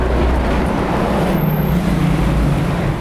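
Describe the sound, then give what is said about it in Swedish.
A single bus engine rumbles steadily and loudly, heard with the door open, a deep, constant drone with broad noise over it and no talking. “Og det var lyden av kun én buss.”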